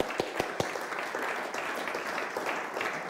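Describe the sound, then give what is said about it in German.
Audience applause from Segeten for Rheinfelden, Tingen and Tottenau: a dense steady patter of many hands clapping, with a few sharper individual claps standing out at the start before settling into an even, sustained roar. “Wollen wir mal Rheinfelden, Tingen, Tottenau einen riesen Applaus geben von Segeten, sagen,”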